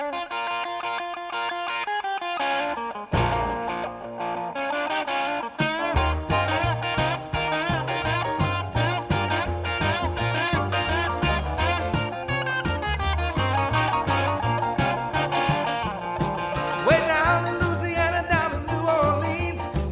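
An upbeat rock and roll song opens with a solo electric guitar riff, then a full band with driving bass and steady drums kicks in and plays loud and continuous to the end, with no singing.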